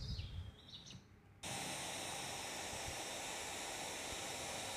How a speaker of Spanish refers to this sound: Y de repente, este sonido de la lluvia me vuelve a traer a ese bosque verde rodeada de árboles que se mueven. Percibo las hojitas, pero el ruido de la lluvia es mucho más potente.